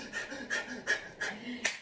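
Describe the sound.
A voice imitates the rapid breathing of orgasm: about five quick, breathy huffs in a steady rhythm, moderately loud, some carrying a faint voiced edge.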